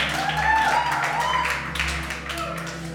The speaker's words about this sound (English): all the people that love sleep is clapping.